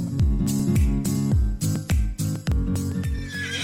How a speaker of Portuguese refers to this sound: E relinchou o, o, o petiço